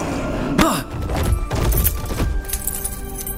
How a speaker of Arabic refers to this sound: سحب سندباد عكاز القبطان وأقحمه بعينه وسحب رزمة مفاتيح منه تمكن من رمي المفاتيح إلى عمه الذي التقطها